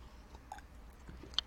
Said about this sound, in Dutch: Even een slokje water.